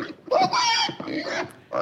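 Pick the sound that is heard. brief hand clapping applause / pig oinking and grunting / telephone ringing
pig oinking and grunting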